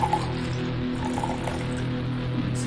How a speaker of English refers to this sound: I'm going to mix me up uh, shochu and sparkling water. So let me pour this for you and the homies and homettes.